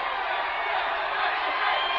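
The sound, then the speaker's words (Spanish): A large crowd at a Raw wrestling show cheers and applauds Shane in a steady, dense roar that holds at an even, fairly loud level for about two seconds, with no clear individual voices standing out. “¡Ay, como lo aplauden a Shane!”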